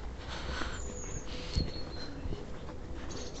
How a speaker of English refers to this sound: I know if you can hear the birds singing. It's, uh, it's very peaceful and quiet.